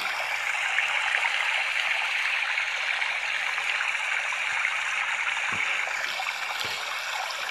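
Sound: flowing stream water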